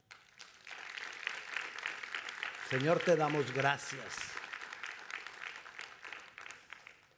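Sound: audience applauding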